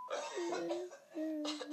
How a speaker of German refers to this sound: Was hustest du denn da hinten?